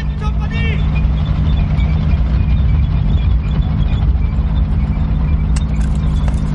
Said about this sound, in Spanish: Un tripulante del tanque asoma la cabeza por la escotilla. El tanque enfila la calle.